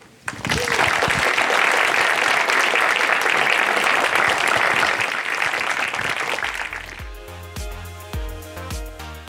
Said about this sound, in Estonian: teeme suure aplausi.